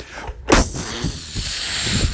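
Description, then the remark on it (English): A voice imitates a blue whale's blowhole blast: a sudden, loud, breathy whoosh that bursts out and then trails into a long, rough hiss of exhaled air. “And he gave him a mega blowhole blaster. And he blasted him.”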